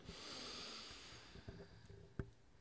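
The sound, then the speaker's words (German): A long, airy inhale drawn through a mask, a soft hissing rush that fades after about a second, followed by faint clicks and small mechanical taps. Quiet, with no talking. “Wir stellen uns vor, dass wir eine Kartusche mit Lachgas aufdrehen, mit der anderen Hand eine Lachatemmaske aufsetzen und drei tiefe Atemzüge mit Lachgas nehmen. Wir atmen ein.”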